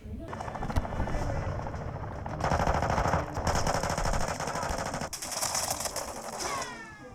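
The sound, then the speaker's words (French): Rapid bursts of machine-gun fire from the combat video game Warzone, played in a dark gaming room full of computers and gamer chairs, rattle almost continuously, loud and dense, with a whirring helicopter-like drone underneath and a voice talking faintly in the mix. “là, je vais jouer à, Warzone. C'est euh, un jeu de combat. Tu dois tuer des personnes pour euh, remporter une mission.”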